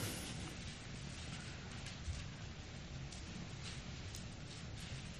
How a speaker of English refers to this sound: One of my favorite sounds. Bible pages turning.